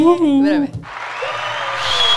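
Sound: applause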